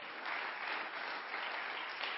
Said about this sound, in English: He's a good God. Come on, give him a clap offering somebody. Come on.